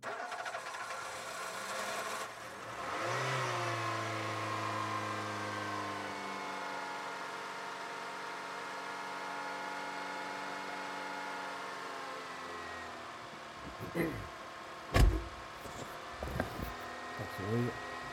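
A car engine turns over and catches, then runs at a steady drone for several seconds during a home-to-work drive of about 20 minutes, before a few sharp clunks and knocks break in near the end.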